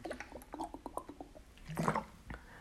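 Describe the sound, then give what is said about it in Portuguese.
Water sloshes and splashes softly in short, irregular bursts, fairly quiet, with a fuller slosh near the end and no talking. “Água.”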